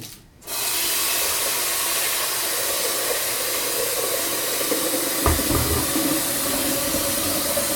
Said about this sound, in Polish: Wlewam wodę oczywiście nie do samego brzegu, żeby później w trakcie gotowania woda nie wylewała się na zewnątrz.